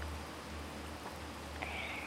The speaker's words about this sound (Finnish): Nyt kuuluu varmaan taustalla tämmöinen oikein tässä onkin tämmöinen kovempi sade.